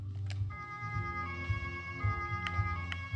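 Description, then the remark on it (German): In a driving video game, a steady electronic siren tone switches on after a brief moment and holds constant over a low, rumbling engine drone, with a couple of faint clicks in the background. “Sirene an.”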